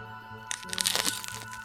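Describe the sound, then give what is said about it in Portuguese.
A crisp bite into a strawberry, a short burst of crackly, wet crunching lasting about half a second over a faint, steady background hum. “Disse Tuco depois de dar uma mordida na fruta.”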